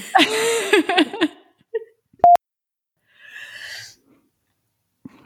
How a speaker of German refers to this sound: … hat gerade gegähnt.